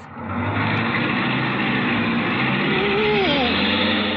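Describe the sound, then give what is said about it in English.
A car engine, started by a driver pressing the brake pedal, roars to life and holds a loud, steady rumble, with a faint rising whine creeping in near the end as it revs up. No voices. “step on the brake? To start my car?”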